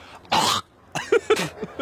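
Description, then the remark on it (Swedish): A man hawks up phlegm: one long, harsh rasping snort from the throat, then a run of shorter gurgling, throaty bursts. No talking. “Hela fram den där loskan han drar på efter det.”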